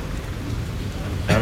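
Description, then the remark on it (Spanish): At a bullfight, a bull gives a single short, harsh snort near the end as it passes behind El Juli's muleta, a loud breathy burst that rises above a steady low rumble of background noise. “Hay el toro que ronca al pasar detrás de la muleta, como oímos.”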